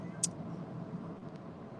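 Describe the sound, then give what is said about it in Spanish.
A steady low rumble of car traffic in a heavy traffic jam near Polpaico, on the road to Los Vilos, fills the background, continuous and moderately loud, with a brief sharp click near the start and no voices. “Eh, la verdad es que tenía, estado como hace más de una hora en un, taco muy fuerte, entonces me, quedé atrapada acá en el tráfico,”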